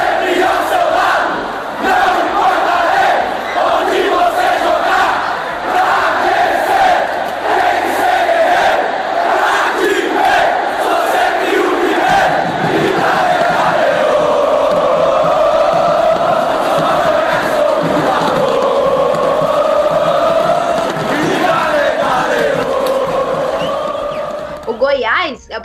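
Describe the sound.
A stadium crowd of football fans at the Serra Dourada stadium chants in unison, a loud, sustained roar of many voices with a rhythmic, sing-song melody that swells and holds throughout before breaking off at the end.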